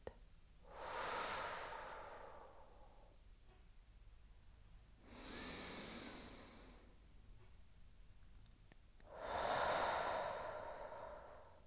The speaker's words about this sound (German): Und nun beginne ich ganz aktiv tief in den Bauch zu atmen. Ich mache auf.